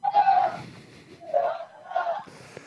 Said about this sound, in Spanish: estamos escuchando que están gritando de fondo.